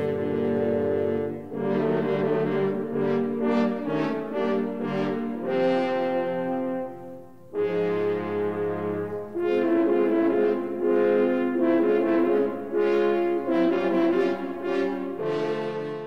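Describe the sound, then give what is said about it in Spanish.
Three French horns representing the wicked wolf play a dark, menacing theme in close harmony, with loud, sustained brass chords moving in short phrases and no talking. “las tres trompas que reflejan la maldad del lobo,”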